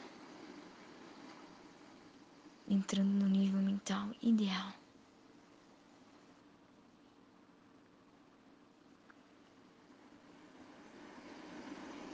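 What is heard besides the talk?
sea waves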